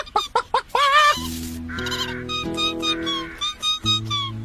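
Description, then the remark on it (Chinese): High-pitched chicks peeping, a burst of quick chirps at first, then more scattered peeps continuing over a low, steady droning tone, as the chicks are sent off to their mother hen. “小斯一直在照顾小鸡，他也应该歇会儿了。”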